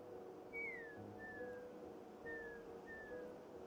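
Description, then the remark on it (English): Someone whistles a bird call used as an all's-clear signal: two pairs of clear, falling notes, each pair a longer note then a shorter one, repeated after a pause over a low steady background hum. “Glom makes a bird call sound that him and Gale used as children for all's clear.”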